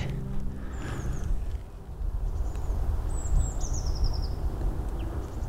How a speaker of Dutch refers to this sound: Zo een keer horen wat er hier nu eigenlijk. Ja, vogels en de weg.